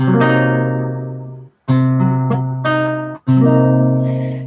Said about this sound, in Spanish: Si toco estas cuatro notas, estos cuatro sonidos simultáneamente, como un acorde, como una armonía en la guitarra o en el teclado, me dan el acorde de Do semi disminuido que sería este.